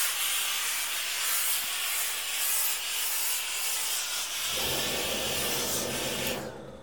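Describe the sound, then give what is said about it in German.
A steam iron hisses steadily and loudly as it steams fabric, with a soft rubbing texture; partway through a deeper rumbling, scraping layer joins the hiss until it cuts off. “Und wenn ich das dann dämpfe”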